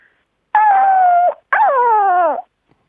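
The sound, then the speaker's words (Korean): A contestant with a hoarse voice imitates a lonely, howling dog with two long, mournful vocal howls, the second sliding downward in pitch, loud with silence in between. “그리고 강아지 외로울 때 아, 해보겠습니다.”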